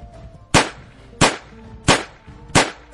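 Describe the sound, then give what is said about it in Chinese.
Four sharp, loud rifle shots fired one after another at a steady, quick pace by a sniper from a building across from a bank, each a hard crack with a short ringing tail, and no voices are heard. “没等他说完，我已经连续扣动了四下扳机。”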